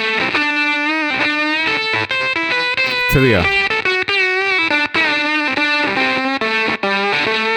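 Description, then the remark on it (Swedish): Heavily distorted electric guitar played through a distortion pedal plays a sustained, buzzing riff with thick harmonics, a brief pick scrape or pitch swoop in the middle, and a few short spoken words over it. “Det är nu man tar fram en hammare och slår lite på pedalen.”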